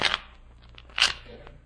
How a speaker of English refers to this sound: Uh, if you will each uh, shuffle the cards, gentlemen. Mr. Holmes first.